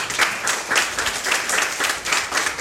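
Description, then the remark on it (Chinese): An audience breaks into steady applause, a dense, even wash of many hands clapping at once, sustained and fairly loud for the whole stretch with no voices over it. “想借助各位的掌声，感谢以上我想感谢的人。”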